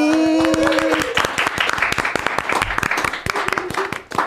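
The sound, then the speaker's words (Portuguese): A small group bursts into lively applause, dense overlapping claps steady for a few seconds, with a brief vocal cheer at the start and a faint voice near the end. “Uma salva de palmas.”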